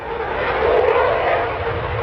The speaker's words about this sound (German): Während von der Startbahn ein Eurofighter zum Übungsflug losdonnert